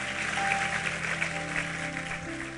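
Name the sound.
audience applauding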